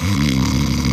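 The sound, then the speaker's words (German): A voice imitates a person snoring, a single loud, rough, rattling snore drawn out for about a second, with no other sounds. “So, und alle haben geschnarcht.”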